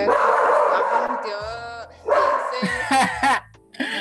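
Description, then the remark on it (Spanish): A dog named Princesa barks in a run of loud yelping barks, with a drawn-out whining note in between, while voices murmur faintly underneath. “no escuchas Princesa, si no es una cosa es la otra, princesa, por favor. Enemiga número uno del, del podcast.”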